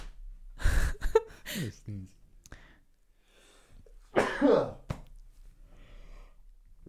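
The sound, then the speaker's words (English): A close, sharp sneeze bursts out, followed by a pause and then a long, drawn-out yawn with a sliding pitch. Both seem to be imitated by a person's voice. “sneeze and a yawn.”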